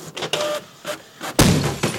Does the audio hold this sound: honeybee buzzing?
no